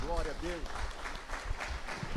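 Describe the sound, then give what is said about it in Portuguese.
An audience breaks into dense, steady applause, many hands clapping together with crowd noise, while a loud voice rings out briefly at the start as a preacher calls on them to applaud their king. “Aplaude o teu rei, aplaude.”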